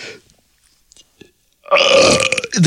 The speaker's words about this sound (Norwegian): Du, ja, du er ikke syns en T-rex når du raper?